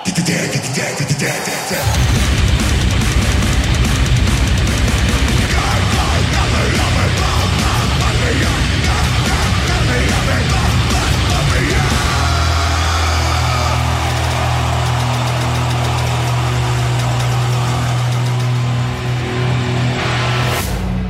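A live heavy metal song, recorded in concert in Toluca, Mexico, roars in after a brief quiet start: dense, distorted guitars and pounding drums at full volume, with shouted vocals and a heavy low rumble through the second half.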